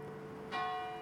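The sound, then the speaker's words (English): The bell of the school's church at Mount Holyoke strikes at 7 a.m. on an October morning, marking Mountain Day, with a bright, loud clang about halfway through, its ringing tones sustaining and slowly decaying over a steady low background hum. “One October morning at 7 a.m., I woke up to the bells of the school's church ringing loudly.”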